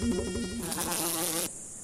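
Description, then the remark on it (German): A mosquito's thin, high-pitched whine drones steadily, wavering slightly in pitch before cutting off abruptly near the end, with no voices. “Ein Parasit, übertragen mit dem Stich einer weiblichen Anopheles-Mücke.”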